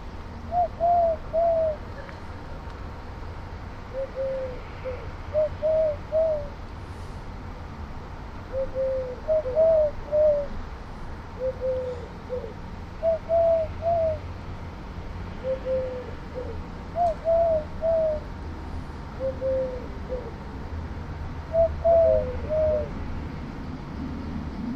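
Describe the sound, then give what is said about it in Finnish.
A male collared dove coos over and over in a treetop, each low, soft three-note phrase repeated at a steady rhythm, with a faint background hum and no talking. “Naaras kävelee tässä näin viiden metrin päässä ja toi uros huhuilee tuossa puun latvuksessa.”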